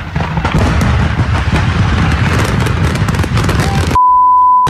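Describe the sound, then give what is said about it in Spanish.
Loud, dense fireworks crackle and pop in rapid, overlapping bursts with deeper booms for about four seconds near a burning house, then cut off abruptly into a steady electronic beep. “se encendió algo y de repente venían los juegos pirotécnicos, decías, oh, ya se calmó eso, y luego venía algo y luego una explosión”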